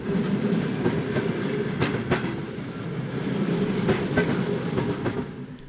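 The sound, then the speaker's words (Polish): Steady rumble of a suburban train in motion, with sharp rhythmic clacks of wheels crossing rail joints, heard continuously, no voices. “Tak jak 20-30 lat temu, u nas w robotniczych pociągach nad ranem faceci rżną w karty, okutane chustami babuszki plotkują, no i cały pociąg żyje tym swoim wewnętrznym życiem w rytmie stukotu kół.”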